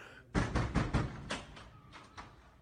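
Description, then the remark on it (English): A door is pushed and pulled, rattling with a quick series of clattering knocks that start loud and grow more scattered and softer over a couple of seconds. “Is this is this a pull or a push door?”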